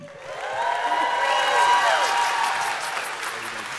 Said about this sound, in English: So auditorium one, I need you as well to give a big, big clap it up. Warm welcome to my friend and yours,